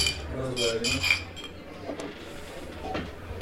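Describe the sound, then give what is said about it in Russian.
Several glasses of rosé wine clink together in a quick toast, bright ringing chimes overlapping for a moment before fading into a low room hum with faint clatter. “Давайте чокнемся.”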